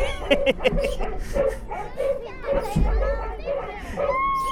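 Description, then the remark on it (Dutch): Excited children's voices on a jumping-dogs amusement park ride, with quick, evenly spaced bursts of sound repeating about twice a second over a steady low rumble of machinery. “Nou, we zitten dus nu in de springende hondjes.”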